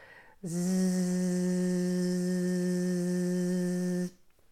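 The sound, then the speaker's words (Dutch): A voice holds a steady, loud buzzing "zzz" for about three and a half seconds as a voice exercise, imitating the drone of a mosquito or fly, then stops abruptly. “Nou, wat je kan doen is zoomen op de Z alsof je dus een soort uh, mug bent of een eh, vlieg.”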